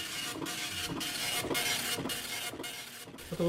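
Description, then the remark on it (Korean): A dot-matrix impact printer in a computer museum prints steadily, striking ink onto paper: a dense, loud rasping screech interrupted by brief regular pauses about every half second as each line finishes. No one speaks. “이제 충격을 줘가지고 잉크를 이제 종이에다 찍는 옛날에는 어 이제 주로 이런 프린터를 이용을 했죠.”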